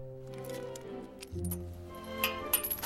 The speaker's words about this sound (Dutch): Ik pak de sleuteltjes uit het envelopje.